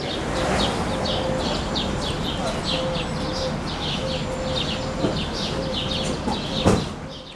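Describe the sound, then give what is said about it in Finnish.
Many birds chirp and call together in a steady, overlapping chatter in the ruins of a grain silo in a port in Lebanon, destroyed by an ammonium nitrate explosion in August 2020, over a constant hiss of background noise, with a couple of brief knocks near the end. “Linnut ovat vallanneet Siilon raunion.”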